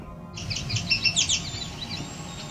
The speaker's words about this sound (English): In this section of the Otter Lake Trail, there were a couple birds that got hidden in the mix. Listen carefully to the very high pitched whine you'll hear after this yellow warbler song